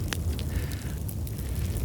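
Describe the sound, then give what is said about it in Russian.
A campfire crackles steadily, with sharp pops and snaps scattered over a low, continuous roar of flames, and no voices are present. “Сегодня мы побеседуем у костра с экспертом в области психологии успеха и достижений.”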